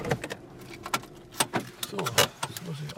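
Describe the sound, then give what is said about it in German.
A car being parked at the edge of a path in a light deciduous forest: a low engine rumble beneath a series of sharp clicks and a jangle of keys, the handling noises coming irregularly over about three seconds. “Er parkt das Auto am Wegrand und stapft voran ins Unterholz.”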